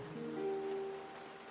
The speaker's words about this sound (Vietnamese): Chứ mưa gió như thế này có dở hơi mới đứng ra đó dầm mưa